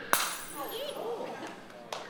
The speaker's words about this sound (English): let's drop the glass ball. Let's just kind of see what happens here.